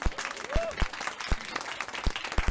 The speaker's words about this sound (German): Und zwar folgendes: Rasse im Recht. Wow, Applaus!